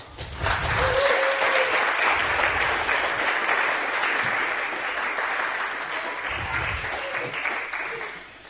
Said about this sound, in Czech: Jak vám opravdu chtěl poděkovat, protože tenhle kemp byl skvělý a máme ho díky vám, takže bych vám ještě jednou rád zatleskal.